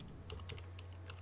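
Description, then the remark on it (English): Rapid, light computer keyboard clicks tap out in an uneven burst over a steady low electrical hum, quiet, with no voices present, from someone playing the game Cookie Clicker. “Can I just say that if you can hear um, some clicking in the background, it's because Cookie's.”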